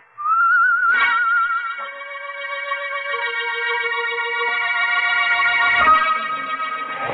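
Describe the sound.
A man whistles a lone tune with wavering, eerie pitch slides and sustained notes, steady and fairly loud, from an alley in thick fog, with no talking, accompanied by a low droning tone that shifts beneath it.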